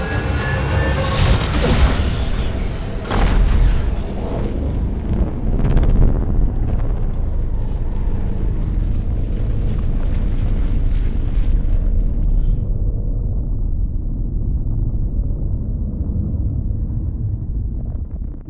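A starship fleet's sci-fi cannon, after charging for ninety seconds, fires at the bug aliens' home planet in a simulated space battle, with a sharp, crackling burst, then a loud, sustained roaring blast and deep rumble that lingers, its hiss fading away toward the end.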